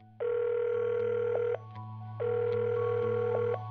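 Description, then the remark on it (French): A telephone rings twice through a handset as Tribble calls his mother before emergency services, each long buzzing ring followed by a short pause, with a steady low electrical hum running underneath throughout. “Il appelle sa mère avant les urgences.”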